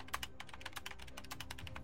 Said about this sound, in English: He could visualize the glow of screens on his chubby face with its neatly trimmed goatee, his fingers racing over the keyboard, willing the E key to work its magic and reel the encrypted information into the waiting arms of Trishul's data centers.